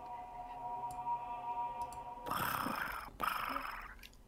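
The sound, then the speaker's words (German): A soft, steady purring hum rises into louder, raspier rolling purrs with a brief pause in between, apparently a human voice imitating a cat's purr as a sound effect for a cat spell. “Genau, ihr hört mich leise schnurren. Das ist ja ein Katzenzauber.”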